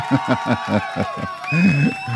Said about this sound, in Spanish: Así que otra ovación.